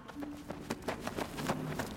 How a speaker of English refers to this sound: You're left with the sound of her running footsteps as she goes deeper into the lab.